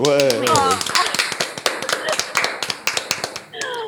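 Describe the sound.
Audience applause: a dense, steady patter of many overlapping hand claps that starts just after a short spoken phrase and carries on throughout, with another voice breaking in near the end.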